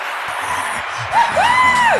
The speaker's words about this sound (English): wait, oh, isn't this supposed to be like a crowd cheering effect? Like, yo, what's happening?